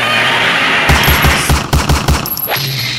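Rapid bursts of gunfire at a bird crack out in a fast, even rhythm, about nine loud shots in under two seconds over a steady background hiss, followed by a fading whoosh.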